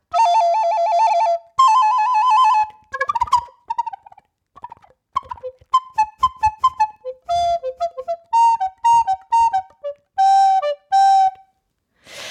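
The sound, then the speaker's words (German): Two soprano recorders play a lively duet imitating a cuckoo's call and a donkey's bray, with shrill held notes, quick trills and short repeated two-note figures separated by brief pauses. “Imitation der Tierlaute, die kombiniert, das macht ein Komponist, der Herr Franz Müller-Busch, in seinen acht einseitigen Stücken für zwei Sopranblockflöten”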